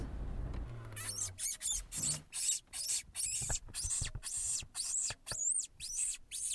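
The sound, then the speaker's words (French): A man makes a rapid series of high, thin squeaks with short gaps between them, imitating a wounded rabbit or mouse after seeing eyes in the vehicle's headlights, about a dozen fairly loud bursts in steady rhythm. “J'ai imité le bruit du lapin blessé, on va dire, ou alors de la souris.”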